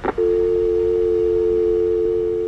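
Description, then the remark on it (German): A short click, then a steady, unbroken telephone line tone hums loudly and evenly for a couple of seconds after the other party hangs up on a mobile phone call, with no voices. “Yoshida hat aufgelegt.”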